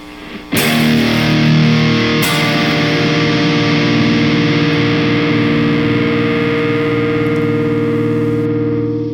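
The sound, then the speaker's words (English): A distorted electric guitar chord, played through a Cortex amp modeler with a cabinet blend of Mick Thomson's signature DV77 and a Swamp Thing, is struck, then struck again moments later, ringing out with thick, heavy sustain for several seconds while the individual notes stay audible. Nobody talks. “Notice still there's so much sustain, but there's clarity and there is the ability to hear each and every one of those individual notes in the chord.”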